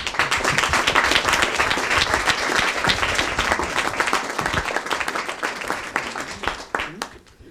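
An audience claps steadily in a loud, dense round of applause that holds for several seconds, then thins out and fades as a few last claps trail off. The short round of applause thanks two speakers at the end of a talk.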